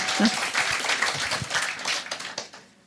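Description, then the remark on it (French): A crowd applauds with dense, steady, lively clapping for a few seconds to show they are fans of the store chain Action, before the sound thins out and fades at the end. “Mais si On est fan de Action par applaudissement.”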